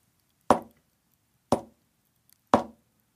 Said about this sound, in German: klopft dreimal leise.